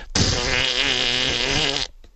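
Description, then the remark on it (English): A person imitates a balloon deflating after its squeezed mouthpiece is let go, with a loud, buzzing, raspy blow lasting nearly two seconds, its pitch wavering slightly, then cutting off abruptly. “Now, when you take the balloon and you squeeze the, the little mouthpiece on it, okay, and then you let it go, the balloon goes”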